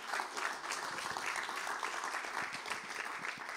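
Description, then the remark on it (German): Steady audience applause for all the staff, a dense wash of many hands clapping at once, sustained without pause for a few seconds with no voices standing out. “Können wir mal den ganzen Mitarbeitern Applaus geben?”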